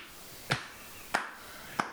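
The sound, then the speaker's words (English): A single person claps their hands three times in a slow, steady rhythm, each clap a crisp, sharp smack over quiet background hiss. No one speaks. “That's me applauding.”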